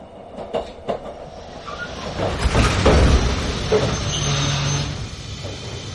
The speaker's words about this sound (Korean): 그가 눈을 떴을 때 기차는 어둠 속에서 육지와 베네치아를 잇는 철로 다리를 달리고 있었다.